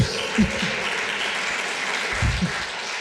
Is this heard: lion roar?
no